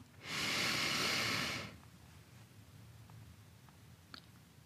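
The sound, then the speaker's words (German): A single deep, breathy inhale into the belly, fairly loud, lasting about a second and a half, followed by quiet stillness with faint small sounds. “Wir atmen ganz tief ein in den Bauch.”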